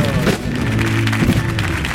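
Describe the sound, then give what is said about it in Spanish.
Steady, dense audience applause welcoming two guests onto a show fills the whole stretch at a strong, even level, with a low musical tone and voices blending underneath. “vamos a recibir con un aplauso atronador, con una ovación cerrada, para recibir, por favor”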